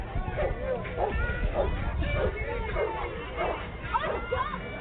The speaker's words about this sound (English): We've got Trucker. He's barking up a storm. He wants that toy. He's gonna get that toy.